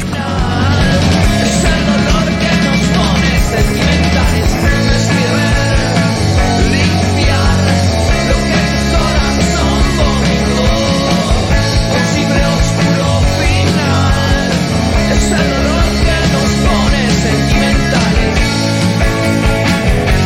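A loud, dense rock song plays continuously from a recording, full band with steady driving instrumentation and what sounds like raw, shouted vocals, unbroken throughout.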